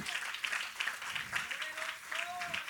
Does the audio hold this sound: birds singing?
no